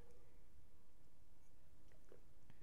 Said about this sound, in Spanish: Voy a tomar un sorbito de Carmen Appetit Rosé.